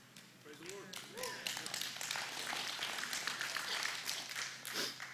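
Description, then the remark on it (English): A scattering of light, polite golf clapping from an audience during a pastor's sermon, soft and uneven, with a few murmuring voices and brief laughter mixed in over a low steady hum. “I did start off with a golf illustration, so a golf clap's okay.”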